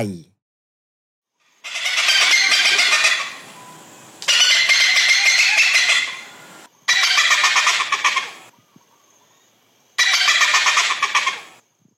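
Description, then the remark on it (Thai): A hornbill calls four times in loud, harsh, rasping bursts of about a second and a half each, separated by short pauses, clear with no one talking. “มันคือเสียงของนกเงือกนั่นเอง”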